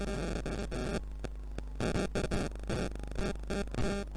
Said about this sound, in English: it just sounds like a bunch of explosives. Well, people are making their own fireworks.